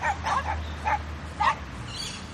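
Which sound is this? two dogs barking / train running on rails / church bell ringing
two dogs barking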